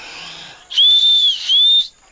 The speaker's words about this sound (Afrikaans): Ekskuus vir die fluit meneer, maar ek moet die skaap darm laat weet ek is nog hier.